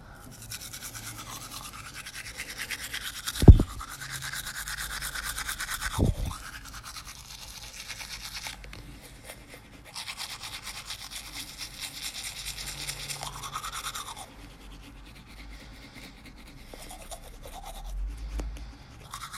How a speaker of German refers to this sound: So, jetzt ein bisschen so Wasser auf Zahnbürste. Jetzt ein bisschen so Zahnpasta auf Zahnbürste. Ich hoffe, ihr habt das gehört, weil wenn ja, ASMR Profi der Welt.